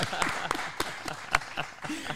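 Brief applause of a few hands clapping in a steady, slightly uneven rhythm, moderately loud, with faint voices murmuring underneath.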